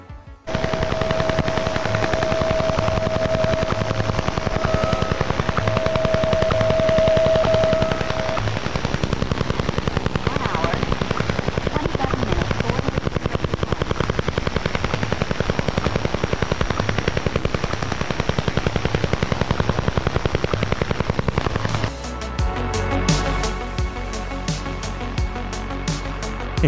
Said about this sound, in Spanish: pájaro carpintero ruso, conocido con su nombre en ruso Duga 3, es una de las estructuras más emblemáticas y misteriosas de la Guerra Fría.